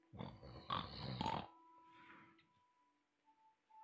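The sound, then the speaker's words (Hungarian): A voice imitates the snoring of an innkeeper dozing at the counter of an inn: a loud, raspy, grunting snore, then a longer second one, followed by a faint breathy tail and quiet. “De azon kívül, hogy álmos tekintettel követi a lépteteket, miután fölmentek, már halljátok is, hogy”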